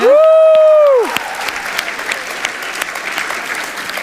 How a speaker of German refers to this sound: Woe, geef maar een vet applaus voor dit zo.